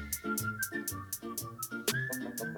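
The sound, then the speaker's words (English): A bright whistled melody glides over a hip-hop beat, with crisp hi-hats ticking steadily and a deep bass line pulsing underneath. The whistle sits clear and up front, with no voices. “I love the beat, man. man. I love that. I love and that. The whistles? Yeah, it's so nice.”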